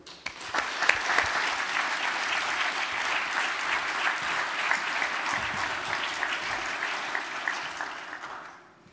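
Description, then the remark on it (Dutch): An audience claps steadily for about eight seconds, a dense wash of many hands at even loudness, with a few sharper individual claps standing out before it fades quickly at the end, welcoming a performer onto the stage. “En ze verdient een applaus en wel van jullie, dames en heren.”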